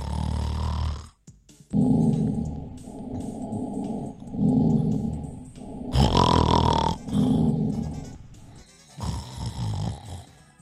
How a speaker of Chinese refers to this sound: 在介绍这个发明之前，我们来认识鼾声连连对打鼾者本人以及枕边人会造成什么样的影响。